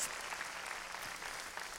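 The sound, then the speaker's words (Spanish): An audience at a Christian worship service, just after a prayer, claps steadily and densely for the Lord, a continuous wash of many hands applauding together at an even level with no voices standing out. “Démosle, démosle palmas fuertes a nuestro Señor.”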